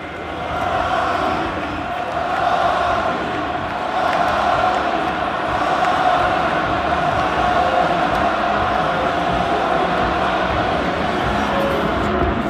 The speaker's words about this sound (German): Ja, ihr hört es. Auf Bestellung quasi skandiert das Camp Nou Xavis Namen.